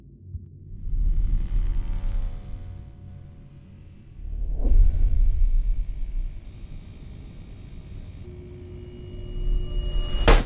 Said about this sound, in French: Une télé qui grésille, qui explose, ça vous dit rien Aujourd'hui, je voudrais vous parler du film qui fait sensation, Five Nights at Freddy's.